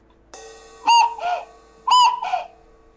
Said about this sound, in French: Et oui, c'était en fait son horloge qui indiquait 8 heures du matin.